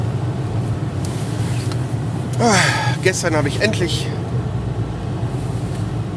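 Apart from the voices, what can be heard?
car engine running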